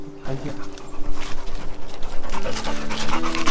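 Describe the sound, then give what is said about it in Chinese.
A dog named Dingdang pants steadily in quick, rhythmic breaths as it leads the way along a mountain trail in Yunnan, China, the huffing fairly loud and continuous, with muffled voices and faint tonal sounds underneath. “前面是我们的叮当犬在开路。”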